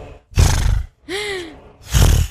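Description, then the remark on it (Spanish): A person imitates a horse: a loud, breathy snort, then a short voiced whinny with a falling pitch, followed by a second forceful snort. “y que se asomó un caballo”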